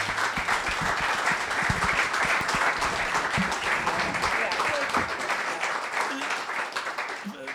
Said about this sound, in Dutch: Ehm, mag ik misschien nog één keer een heel groot applaus?